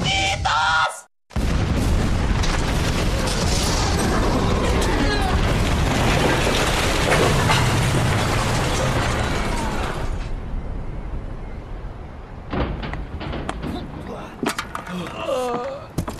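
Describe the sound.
A huge, roaring explosion from a self-destruct sequence destroys a whole house, filling the first ten seconds with dense low rumble and crashing debris, then tapering into scattered clatter and settling rubble. Speech-like voices are faintly mixed in.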